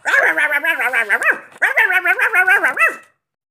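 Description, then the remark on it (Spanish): A small, angry fox terrier barks in two loud bursts of rapid, high yapping barks, each ending in a rising yelp, with a brief pause between them. “En lugar de cola, tiene un fox terrier enojado que ladra toda la noche.”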